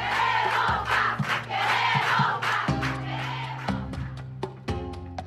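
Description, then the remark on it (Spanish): A large crowd shouts the protest chant "queremos pan" (we want bread) in unison, loud and dense, with repeated bursts of voices rising together and a steady low hum underneath. “Eh, gritan, queremos pan.”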